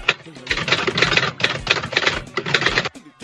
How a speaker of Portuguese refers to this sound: É, não, mas eu, eu, eu, trouxe minha máquina de escrever aqui que eu esqueci a caneta.